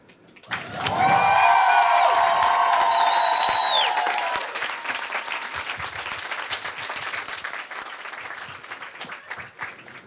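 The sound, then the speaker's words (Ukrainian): A large audience in a hall bursts into loud applause for a caller to the broadcast, with cheering and a brief whistle at first, then settles into steady, crackling clapping until the end. “Я вам скажу те, що за ту смітл сміливість, е, яку ви приклали, щоб подзвонити в наш ефір, зараз весь цей зал і всі ці скороботні серця зроблять вам такі аплодисменти, які піднесуть вас до неба.”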